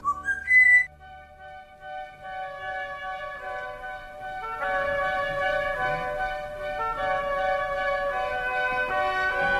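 Someone whistles a tune in long, sustained notes, steady and fairly even in loudness after a brief louder burst at the start, with no talking.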